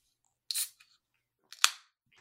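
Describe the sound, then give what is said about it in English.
A can of Deep Ellum IPA, a 7% ABV beer from Deep Ellum Brewing, being cracked open: two sharp snaps about a second apart, each followed by a short, bright fizzing hiss, with no talking. “have you already cracked yours? No. Let's hear it.”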